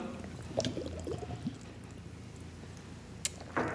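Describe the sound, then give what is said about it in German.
Soft glugging and bubbling as a woodruff (Waldmeister) drink is poured after a toast, quiet and uneven, followed near the end by a couple of brief, sharper splashy sounds. “man hört es leise gluckern.”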